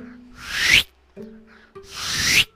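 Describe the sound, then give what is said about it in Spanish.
Two papery page-turning swishes, each a rising rustle lasting most of a second, separated by a short pause with a faint low hum. “Mira, mira, te voy a hacer el ruidito de pasar la página.”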